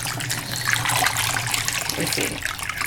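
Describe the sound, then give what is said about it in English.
Darkroom stop bath solution is poured out steadily into a sink or tray for a few seconds, a continuous splashing stream with no one speaking. “So I'm pouring out my stop now, and I'm gonna add my fixer.”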